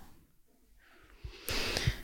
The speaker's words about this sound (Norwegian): Trekk pusten dypt inn,